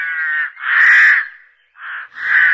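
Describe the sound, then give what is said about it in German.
A crow caws four times in close succession, loud, each call harsh and drawn-out with a brief pause before the last two. “Westlich der Elbe leben die schwarzen Rabenkrähen.”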